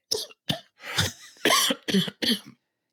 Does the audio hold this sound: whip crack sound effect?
no